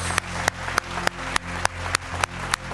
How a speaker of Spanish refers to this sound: Yo sí le doy un aplauso a todas. De veras, ¿eh? Mis respetos.